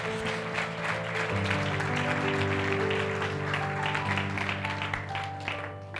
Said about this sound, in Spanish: Si le vas a aplaudir, apláudele fuerte, vamos.